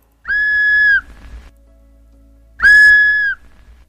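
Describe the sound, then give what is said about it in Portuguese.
Two sustained whistled notes, each lasting under a second, separated by a pause, loud and clear against faint background noise, heard while fishing at a river. No one speaks. “Um tempo depois, começamos a ouvir um assobio.”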